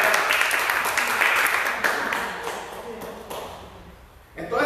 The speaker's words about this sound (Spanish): Un aplauso, por favor